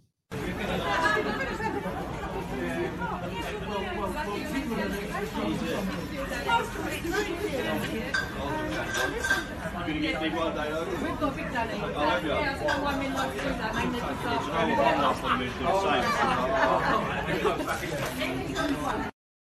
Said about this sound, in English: So, what I what you may have heard in the background is people are talking and sounding very uh, up and up, and they're all having uh, what seems to be a good time.